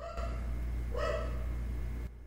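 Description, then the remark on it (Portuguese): A dog barks once, a short muffled yelp, over a steady low electrical hum that fills the whole recording. “Cara, que cachorro, filho de uma.”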